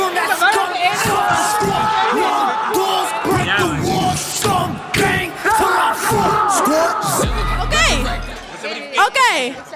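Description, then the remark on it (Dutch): Several people shout loudly over one another in a dense, continuous clamor of raised voices that barely lets up, with a brief low rumble near the end. “Dat ding staat één seconde aan. Jullie beginnen gelijk te schreeuwen.”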